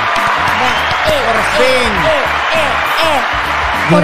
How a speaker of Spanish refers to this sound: Bienvenidos al capítulo número 24 de Sin Más Que Decir. Ponme aplauso.